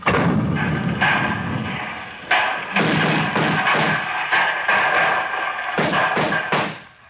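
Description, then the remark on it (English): A loud, sustained barrage of cannon fire from government soldiers' cannon aimed at a barricade, with heavy booms landing in quick, irregular succession over a continuous rumbling roar and no voices. “All day I've sat here, listening, when I hear the first cannon, I'll know surely that he's dead.”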